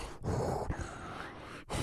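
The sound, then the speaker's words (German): A voice imitates the heavy, rasping breathing of a masked figure at the start of a horror film: a couple of long, hissing breaths, fairly loud, separated by brief pauses, with no talking. “so ein, so ein Schnaufen unter der Maske, der irgendwie durch eine Wohnung läuft”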